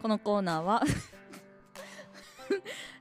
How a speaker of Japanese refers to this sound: すいません ちょっと今音入ってるかなあのどうぞっていう合図してくれる方の指が机にガンって多分関節から先が当たってわいたって思いながらちょっと笑ってしまいました